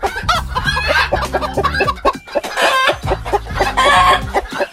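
hens clucking

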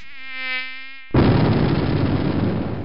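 mosquito buzzing

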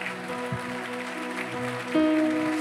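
audience applauding

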